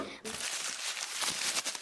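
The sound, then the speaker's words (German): Continuous crinkling of paper, a dense crackly rustle that starts abruptly and carries on steadily for a couple of seconds, with no other sounds on top. “Das hat man auch ein bisschen knistern hören, gell?”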